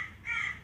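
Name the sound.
crow cawing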